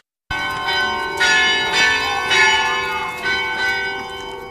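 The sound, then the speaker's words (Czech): The carillon of a new church in the Lesná housing estate of Brno, Czech Republic, chimes at its regular interval, its bells striking in a steady sequence of ringing tones that overlap and sustain, fairly loud and resonant with no voices present. “Dozněla zvonkohra, jejíž zvuk se od letošního roku nese v pravidelných intervalech brněnským sídlištěm Lesná.”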